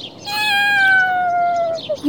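A single drawn-out cat meow, clear, with a steady harmonic tone that slowly falls in pitch over about a second and a half, heard alone without talking.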